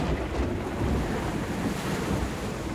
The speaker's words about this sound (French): Un navire en haute mer, au milieu de l'océan Pacifique dans l'hémisphère sud, avec pour seul horizon les vagues, le ciel, les nuages.